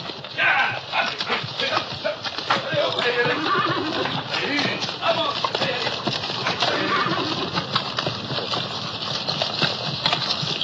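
Horses whinny and snort amid a busy clatter of hooves, with a dog barking now and then and people calling out in the background; a dense, lively outdoor scene throughout.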